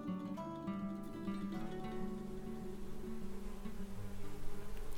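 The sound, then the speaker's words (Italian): A steady, continuous buzzing of bees, a dense droning tone that wavers slightly but never stops. No voices are present. “Con quello dicono alle api quando sono pronti a dare loro il nettare.”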